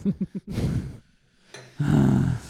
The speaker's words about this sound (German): Ähm, jetzt hörst du wieder die Laubbläser draussen.